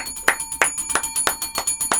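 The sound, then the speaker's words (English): A hand bell rings steadily, about six bright clangs in a quick, even rhythm, its metallic tone sustaining between strikes with no voices. “Oh, I just, I just take your bell away.”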